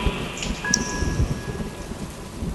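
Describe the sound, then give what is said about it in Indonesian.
Steady rain pours down at night while low, rumbling thunder rolls beneath it, a continuous stormy wash with a few faint tonal whistles overhead and no voices. “Malam itu hujan turun lagi.”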